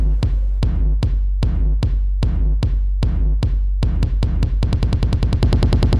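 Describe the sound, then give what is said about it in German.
Booming timpani strokes ring out one after another, representing the hunters' rifle shots in an orchestral piece. They are steady at first, then quicken into a rapid rolling burst near the end. Loud, with no voices. “Die Schüsse aus den Gewehren der Jäger durch die Kesselpauken.”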